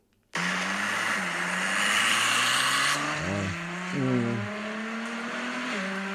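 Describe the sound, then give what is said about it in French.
A car engine roars to life and revs hard as its exhaust valves open, the deep exhaust note rising and dropping in several loud throttle blips over a steady rumbling idle, with no talking. “Alors c'est ça, ça veut dire que quand on achète une voiture, ça c'est le bruit des valves qui s'ouvrent.”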